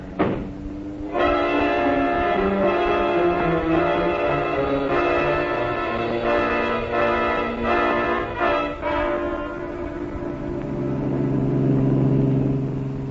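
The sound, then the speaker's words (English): A loud, steady roar of a car engine driving hard as FBI agents chase another car, with blaring horn-like tones layered on top, sustained throughout with no one talking. “pull up as close to that car as you can.”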